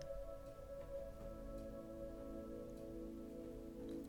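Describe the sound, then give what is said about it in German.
Soft, steady rain patters continuously with no pauses, quiet and even, over a sustained low humming drone of tones that holds throughout. “Lass dich einmal auf die Magie dieses Regens und dieses Wassers ein.”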